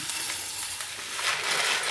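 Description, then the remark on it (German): A steady rush of dry uncooked rice pouring into a pot, a dense hissing patter that swells slightly louder toward the end, with no voices. “Also, wir schmeißen das jetzt in die Pfanne”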